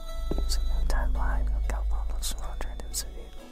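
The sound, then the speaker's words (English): A faint, hushed, scarcely intelligible voice whispers in a Konami video game, heard when visiting room 209 of an apartment building, murmuring over a low, steady rumble, with breathy bursts of sibilance coming and going for a few seconds. “Konami decided to bamboozle players with a spine tingling mystery in the second game, when visiting room 209 in the Blue Creek apartments, keen eared players might hear a faint, scarcely intelligible voice whispering to them.”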